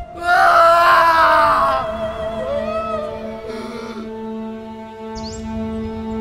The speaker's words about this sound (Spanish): Entonces Jesús volvió a gritar y entregó su espíritu.